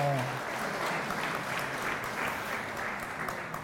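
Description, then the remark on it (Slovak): Steady, dense applause from a crowd fills the whole stretch, loud and sustained, with a brief trace of a voice at the very start before the clapping takes over. “… sa pokusil o posledné slovo, ale zaniklo v potlesku”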